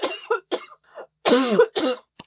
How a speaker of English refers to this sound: Um, I'm gonna cough. a little.